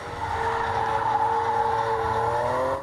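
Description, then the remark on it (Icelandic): Car tires squeal continuously in a long, steady screech while drifting, with engine rumble underneath, loud, running nearly three seconds before cutting off abruptly. “En svo hafa verið að koma inn svona háatilkynningar á svona vissum stöðum í bænum eh, út af drifti eða menna verið að spóla.”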